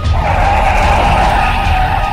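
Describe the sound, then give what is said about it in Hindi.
A car brakes hard as a man runs toward it, and its tires skid with a loud, sustained high squeal that holds steady for about two seconds over a low rumbling engine noise, with no voices. “वेद ने तुरंत अपनी गाड़ी अस्सी की स्पीड में डाली और वहां से भागना शुरू कर दिया लेकिन कुछ ही आगे जाकर देखा तो पाया कि सामने से वही आदमी एक बार दौड़ता हुआ वेद की गाड़ी की तरफ आ रहा था डर के मारे वेद को ब्रेक मारना ही पड़ा”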